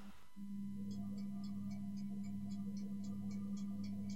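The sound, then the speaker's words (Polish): A running electric oven gives off a steady, low electrical buzz that holds constant throughout, with a faint, regular ticking pattering along above it. No one speaks. “Czyli tak hałasuje ten piekarnik, tak?”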